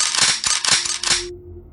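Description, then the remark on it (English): About five guns being cocked one after another from different points in a room, a quick series of sharp metallic clacks, loud, each with a bright ratchety snap, then the sound drops away to a low hum. “He looks at you, and from about five other points in the room, you hear guns cock.”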